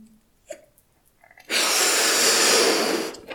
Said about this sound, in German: Okay? Wir machen es zusammen. Du holst ganz tief Luft und dann aufpusten.